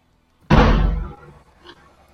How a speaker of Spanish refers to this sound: ¡Au! se armaron los pinches cuetazos al fondo. Ya, están, ya están tirando balazos ahí con el EUS, no manches.